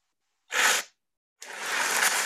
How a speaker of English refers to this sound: Okay, that's this is like fire. Okay, it's a hot tip. It's a very hot tip.